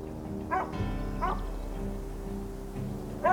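A dog barks three times in short, sharp bursts, two close together and one after a pause, over a steady low humming background.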